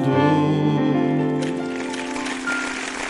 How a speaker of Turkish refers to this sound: Alkışlar alkışlar. Teşekkür ederiz.